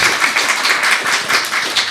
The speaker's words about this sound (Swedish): Ja, vi tar en applåd! Vad fint att de är här!